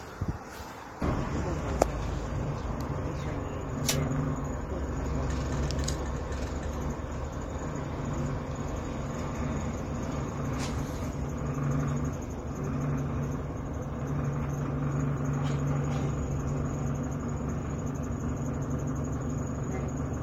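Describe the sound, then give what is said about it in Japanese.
Continuous low rumble of a bus interior in motion in Gifu, Japan, as it arrives at JR Gifu Station, steady engine drone with faint rattles and a brief sharp knock near the start, no talking. “JR 岐阜駅に着きましたバスで220円で来れるのはありがたいですね”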